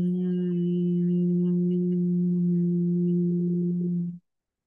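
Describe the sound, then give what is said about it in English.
A steady, sustained human hum on a single low pitch, held evenly and fairly loud for about four seconds before stopping abruptly, with no words spoken. “And then as you're talking, stop talking and turning into a hum.”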